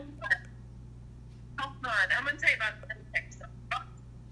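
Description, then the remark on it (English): A muffled voice on a phone call breaks up into short, choppy fragments as the connection cuts in and out, with gaps of near silence between them, all over a steady low electrical hum. “It's like you're in and out.”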